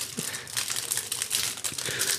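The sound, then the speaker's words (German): The wrapper of a Magnum chocolate bar being unwrapped, giving a steady run of bright, crackly crinkling with sharper rustles and crunches at irregular moments, moderately loud with no talking. “Machst du jetzt diese Magnum-Schokoladentafel auf?”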